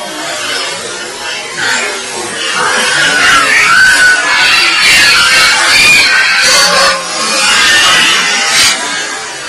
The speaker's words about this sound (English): you could actually hear in that EVP a dog barking, a child almost singing in the beginning to screaming in the middle for its mother